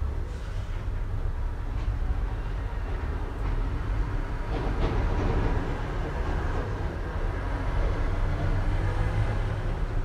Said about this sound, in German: Denn es scheint egal zu sein, wie gewartet wird. Es wird immer ein Zug oder eine Straßenbahn fahren.